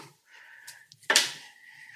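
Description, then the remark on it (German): A single sharp knock of a bottle cork dropping onto a table, fairly loud with a quick fading rattle, over a quiet room hum with no one talking. “Hoppla, das war jetzt der Korken auf dem Tisch.”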